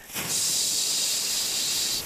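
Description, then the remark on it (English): A person makes a steady, sharp hissing sound with their mouth, imitating the lit fuse of a cannon. It sounds fairly loud and unbroken for about two seconds, with no speech. “all right, now we'll light the cannon.”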